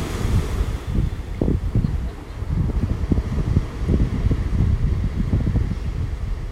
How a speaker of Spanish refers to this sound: Y voy a relajar el cuerpo y la mente por un minuto más, conectando con el sonido del mar.